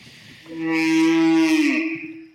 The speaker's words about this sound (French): Donc euh, c'est un, un mégaptère qu'on appelle aussi baleine à bosse. Et, euh, et ces baleines sont connues pour leur chant. Les mâles chantent en période de reproduction. Et donc ça va du très grave au médium, aux, aigus, même,